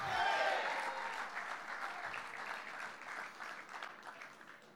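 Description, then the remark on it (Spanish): An audience applauds steadily, a dense wash of many hands clapping that starts strongest and gradually softens over a few seconds, with a brief tonal voice or note at the very beginning. “Más que un aplauso, levanta tu mano y dale toda la gloria al que vive, porque Él vive para siempre.”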